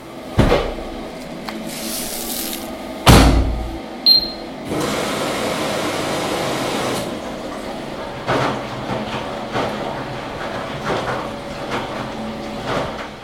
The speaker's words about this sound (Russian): Посуду я мыла биоразлагаемым моющим средством.